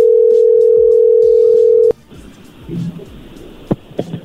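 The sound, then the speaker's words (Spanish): A steady, loud telephone tone holds for about two seconds as a call goes through, then cuts off abruptly, leaving faint line noise and a few soft clicks. “A ver, ya entró ahí la llamada.”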